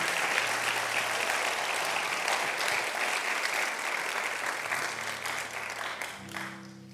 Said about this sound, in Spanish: Vamos a darle un aplauso al Señor, si usted lo entiende.